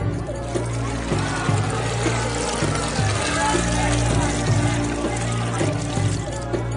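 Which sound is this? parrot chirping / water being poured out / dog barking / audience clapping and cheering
water being poured out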